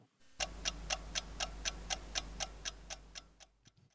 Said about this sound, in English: Setting the timer. I do have dreams about that godforsaken timer. Let's start it now.